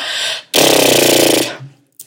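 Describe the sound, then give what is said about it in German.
A person imitates a horse's snort: a loud, buzzy exhale with rapidly flapping lips lasting about a second, after a softer breath in. No one speaks. “Ähm, ich bin ein großer Freund davon, so abzuschnauben wie ein Pferd, also mhm. tatsächlich mit vibrierenden Lippen.”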